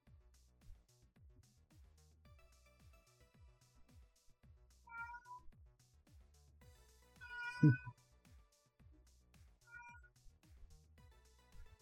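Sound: cat meowing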